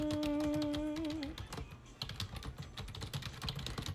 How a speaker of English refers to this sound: That little pause of silence and just typing.